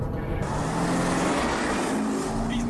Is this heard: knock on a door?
no